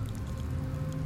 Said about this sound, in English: not sure where that noise is coming from. Is it coming from the furnace or outside, but no, I think that's the uh, the street cleaner. Oh, okay, thank you. The big vacuum thing.